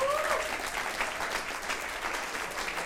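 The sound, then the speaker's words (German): A crowd claps steadily for the people who make coffee and set up chairs, a dense wash of many hands for a few seconds, with a brief rising whistle cutting through at the start. “Leute, lasst uns mal einen Applaus geben für die Leute, die Kaffee kochen und Stühle aufstellen.”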